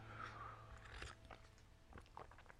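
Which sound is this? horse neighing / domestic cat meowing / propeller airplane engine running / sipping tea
sipping tea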